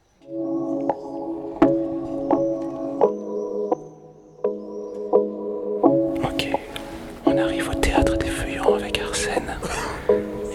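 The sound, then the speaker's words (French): Hushed voices of ten young people speak and murmur during a theatre rehearsal of a play, with soft taps and shuffling noises growing busier in the second half. “j'ai l'impression qu'on est en pleine répétition, donc on va pas pouvoir parler trop fort.”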